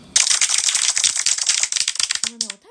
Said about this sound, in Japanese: 拍手